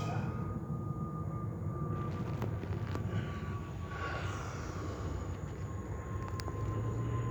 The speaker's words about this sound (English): Okay, well, the airplane crashes.